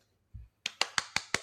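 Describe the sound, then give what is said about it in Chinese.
A short run of hand clapping by a guest clapping for herself as she is welcomed: six quick, evenly spaced, sharp claps at a steady brisk rhythm, preceded by a soft low thump, with no voices. “自己拍手。”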